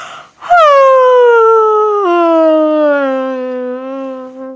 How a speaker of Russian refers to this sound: О, сейчас уже и прям вот до слез зеваешь, и вот минут пять в одну сторону прям с зевом, и с голосом.